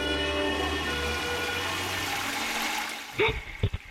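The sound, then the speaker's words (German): A toilet flushes with a steady, rushing gush of water that holds for a few seconds before draining away, followed by a couple of short vocal sounds at the end. “Das ist nämlich eine Klospülung.”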